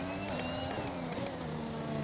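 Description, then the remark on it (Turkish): A racing car engine on a simulator lap drones steadily and loudly, its pitch sliding down and back up as the driver brakes and shifts down to second gear through a turn, with a few brief sharp ticks overhead. “Yine 100, metre, 100 metre besine frene basacağım. Basıyorum. Bu sefer ikinci vitese ineceğim.”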